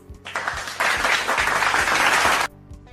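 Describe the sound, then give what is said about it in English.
A class of children clap loudly for themselves after reading, a dense burst of applause that swells quickly, holds steady for about two seconds, then stops abruptly. “Give yourselves loud claps.”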